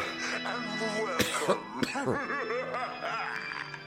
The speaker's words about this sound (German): ja, der Hustenteufel. Ah, ich denke, es wird schon noch gehen.